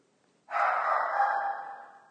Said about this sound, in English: That's quite a bark. She doesn't do that unless there's something really bad.